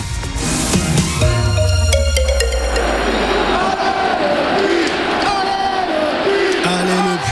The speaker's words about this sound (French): quelle ambiance Le stade Geoffroy Guichard bouillonnant l'entre des verts à l'unisson hier soir pour applaudir la petite équipe du Puy Foot en quart de finale de Coupe de France.